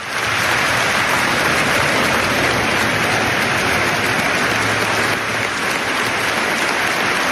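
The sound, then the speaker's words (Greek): A huge football stadium crowd sings together for the opposing player Ronaldo, a dense, steady roar of thousands of voices with a faint sustained tune underneath, loud and unbroken for several seconds with no individual talk. “τιμούν τον Ρονάλντο, στηρίζουν τον Ρονάλντο, τραγουδώντα όλο το γήπεδο μαζί για τον αντίπαλο που είχε μια τραγική στιγμή στη ζωή του.”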